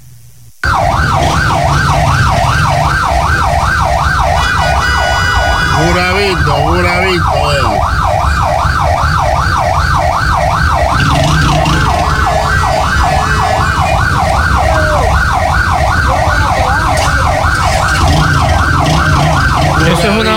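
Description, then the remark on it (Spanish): A loud ambulance siren wails in a fast, steady warble for the whole stretch, over a low rumble of idling traffic, while a man briefly speaks; the ambulance has been stuck for over 10 minutes in a traffic jam in Curaví, unable to cross. “Más de 10 minutos a ambulancia. Un tapón aquí en Curaví.”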